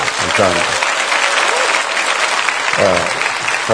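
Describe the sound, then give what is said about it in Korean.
Steady applause from a church audience welcoming a former shaman fills the whole stretch, a dense, even clatter of many hands. A man's voice speaks briefly over it at the start and again near the end. “자, 박수로 우리 어, 맞아.”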